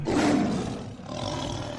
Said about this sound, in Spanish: Ahora, si solo escuchas el rugir de un león